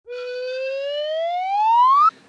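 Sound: slide whistle sound effect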